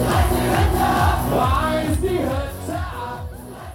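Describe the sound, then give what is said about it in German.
A large audience at an on-board concert on a cruise ship cheers and shouts loudly and continuously, a dense roar of many voices, with a steady loud energy throughout. “Bevor ich euch jetzt aber entlasse, habe ich für euch natürlich noch eine kleine Kostprobe von unserem Bordkonzert eingefangen.”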